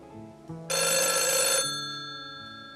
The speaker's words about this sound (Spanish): Luego la nada se había roto por el timbre del teléfono. Sin separar la vista de las fotografías, buscó a tientas el aparato.